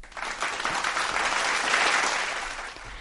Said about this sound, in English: Yay! We'll get you some applause.